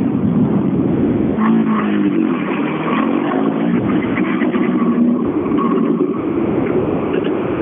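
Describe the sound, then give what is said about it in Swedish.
A rally car engine roars loudly as the car comes in during a Swedish championship rally, its pitch climbing and dropping as it revs through several surges over a steady, continuous rumble. “Ja, han är på väg in bakom.”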